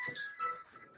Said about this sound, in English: Is that your phone? Yeah, that's my phone. It's uh, on charge. You're not it off. That's that's bad planning. That's um, bad planning. You know, it's it was so out of sight because it's actually charging in the background.